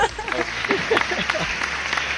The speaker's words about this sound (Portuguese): Eu vi palmas, eu vi palmas.